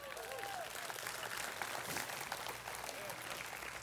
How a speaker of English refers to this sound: If you believe that, really give him a hand clap and a shout.